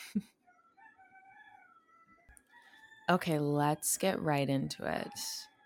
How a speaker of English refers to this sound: I apologize if you can hear the roosters in the background. I live in Mexico and it's seven in the morning.